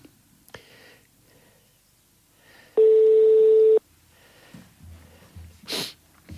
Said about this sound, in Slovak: Voláte mimo siete Orange. Ach, jaj, zvoní.